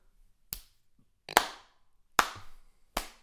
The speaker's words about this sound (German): ich hätte jetzt gedacht, eher irgendwo hinten in der Bahn, Prenzlauer Berg, fängt einer an, so, so prollig, so ganz langsam zu klatschen und dann so